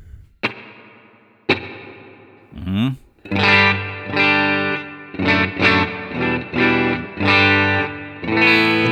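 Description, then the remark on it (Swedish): Electric guitar through a spring reverb effect, with the Spring type selected on an Exciter effect: two single strummed chords ring out and decay, then a loud run of rhythmically restruck, sustained chords with a washy, lingering tail. A brief murmur is heard. “Jag sätter då den här eh, Exciter som gör lite olika grejer och väljer då istället Spring.”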